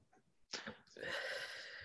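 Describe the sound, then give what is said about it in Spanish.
A dog lets out a sudden sharp, snorting burst, then a sustained raspy, whiny noise lasting under a second, with faint background murmur just before. “Eso está el perro.”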